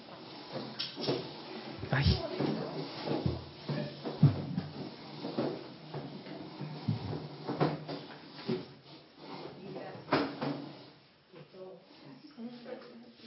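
Chairs scrape and thump as they are shuffled back into place, a steady clatter of wooden knocks and drags over several seconds, with people murmuring and chatting throughout.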